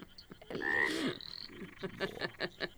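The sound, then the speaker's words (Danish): A frog croaks loudly in a drawn-out, raspy burst, followed by a series of shorter, rhythmic croaks and clicks, with no voices present. “Hørte du lige den frø?”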